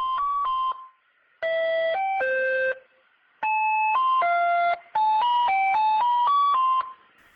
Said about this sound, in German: und verkauft halt da Eis. Und das ist halt so eine Melodie, die da on repeat läuft.